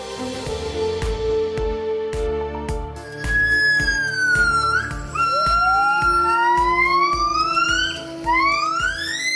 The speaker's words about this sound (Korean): 이게 무슨 소리로 들리십니까? 이 소린 흔히 긴팔 원숭이라고 부르는 아시아의 유인원 기본의 노랫소리인데요 동물들도 노래를 하죠 특히 기본은 유일하게 음악성을 가진 유인원으로 알려져 있는데요.